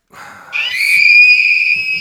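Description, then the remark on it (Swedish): A shrill, sustained electronic scream blares from a novelty birthday greeting card as it is opened, starting with a brief rising burst then holding a loud, piercing tone. “Varför, varför skriker kortet?”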